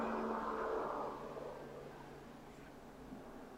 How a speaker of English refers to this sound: sounds like a helicopter.